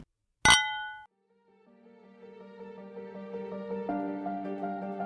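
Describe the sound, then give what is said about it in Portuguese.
A single bright clink of wine glasses touching in a toast, ringing briefly before fading, followed by soft music that gradually swells underneath. “Brinde história? Tchim, tchim.”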